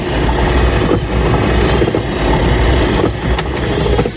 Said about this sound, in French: Là, il y a un bruit typique. Ouais, c'est des essuie-glaces.